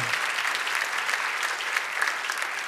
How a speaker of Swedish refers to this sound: tack så mycket lovsångarna. Ge dem också en varm applåd.